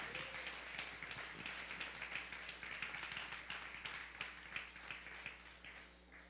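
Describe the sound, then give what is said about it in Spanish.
A crowd applauds the Lord steadily for several seconds, a dense wash of many hands clapping at once, sustained and fairly loud without a break, with a faint low hum underneath. “Denle el aplauso al Señor, denle el aplauso al Señor.”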